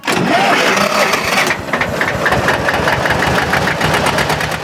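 A tractor engine cranks and catches with a loud, rough burst, then settles into a steady, thumping idle with a regular knocking rhythm, without any talking.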